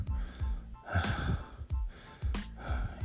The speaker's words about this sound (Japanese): 今息切れてんのえっと筋トレの後だからあれですけど